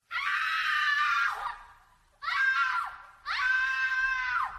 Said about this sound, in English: A Wilhelm scream is a stock scream that they play in a lot of movies. It's typically a male scream, which you might hear right now. but there is a female Wilhelm scream that sounds like this.